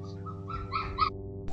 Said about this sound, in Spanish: En serio con estos perritos gritones, ¿verdad? Están aprendiendo a aullar. ¿Lo escuchan?